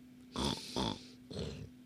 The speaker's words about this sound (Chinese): 十一点，打呼噜了。